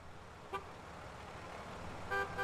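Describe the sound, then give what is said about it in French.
Car horns honk amid steady traffic rumble: a short blast, then two longer overlapping honks near the end, fairly loud over the continuous road noise. “Bruit de klaxons, d'aspirateurs, de la circulation, des travaux chez les voisins ou de la musique écoutée à fond, nos oreilles sont mises à rude épreuve tout au long de la journée.”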